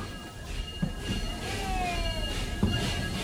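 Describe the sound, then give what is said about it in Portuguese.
A train bell rings with sustained metallic overtones, struck a couple of times over a steady rumble of rail noise, moderately loud, on the train running between Tiradentes and São João del Rei in the Campo das Vertentes region, recorded in Tiradentes. “E quando o trem, esse sino do trem também começa a tocar, ó.”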